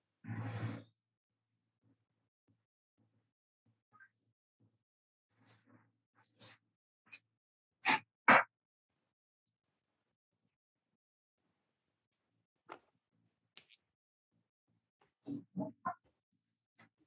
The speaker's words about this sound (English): I'm just going to close this door here. One second. Yeah, yeah, sure. It's, it's to the outside.